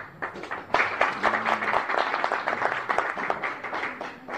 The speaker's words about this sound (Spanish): Y muchas felicitaciones y con más, más aplausos para estos siete concursantes.